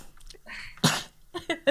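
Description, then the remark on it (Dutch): A sharp inhale leads into one short sneeze, a sudden burst of breathy noise, followed by a moment of quiet and then a bit of voice. “ja ik ben altijd zo hachi, zo hard.”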